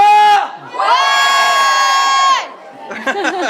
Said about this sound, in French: Attention, on va faire gueuler Chaudron, Grimoire, Grimoire Chaudron, vous êtes avec moi